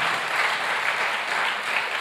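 A church audience claps steadily together to give glory to the Messiah, a dense, even wash of many hands applauding at a fairly loud level throughout, with no voices standing out.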